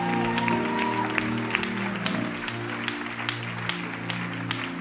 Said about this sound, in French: Est-ce qu'on peut l'applaudir encore, s'il vous plaît